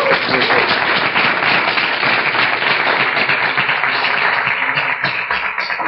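An audience at a business presentation breaks into sustained applause for a well-dressed man, a dense, steady patter of many hands clapping at full volume for about six seconds, with a faint murmur of voices mixed in.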